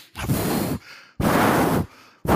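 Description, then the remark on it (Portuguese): A voice imitates sniffling with three sharp, loud nasal inhales in quick succession, each a short burst of breathy noise, separated by brief quiet gaps. “Em que você entra, você sabe que a pessoa está ali, ele está fungando assim.”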